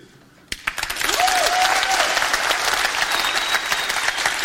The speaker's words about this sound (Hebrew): עכשיו, תנו לי מחיאות כפיים של סיפור ממש טוב, שמי ששרף חמישה מיליון דולר ועמד ערום, מחבק את השפיץ של האמפר סטייט בילדינג, תוך כדי שהוא עושה את זה.